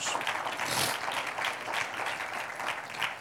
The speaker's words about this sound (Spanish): Vamos a darle un aplauso al nombre de Jesús.